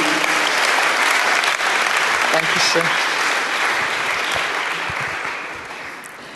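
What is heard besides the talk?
audience applause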